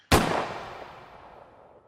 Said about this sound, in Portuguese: Consegui me forçar a desviar a arma a tempo e atirei na coisa.